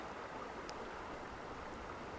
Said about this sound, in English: And we're going to find a comfortable spot to just sit and absorb the warmth of the sun and the sound of the waves crashing on shore, coming and going like a universal, eternal heartbeat.